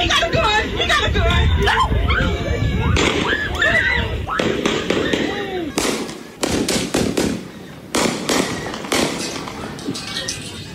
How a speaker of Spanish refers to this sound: Escuchen cómo en la cabeza le dispara un joven.